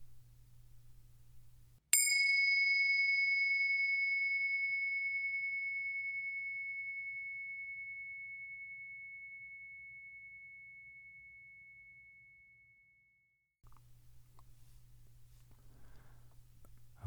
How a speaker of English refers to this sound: First, let's settle in together with the sound of the bells.